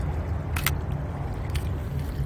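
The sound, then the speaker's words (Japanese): Crisp camera shutter clicks while photographing the partly eclipsed moon outdoors in cold winter weather, first a quick double click and then a single one a moment later, set against a steady low rumble of a passing airplane. “こちら冬なんです今ねシャッターを押す音聞こえますか”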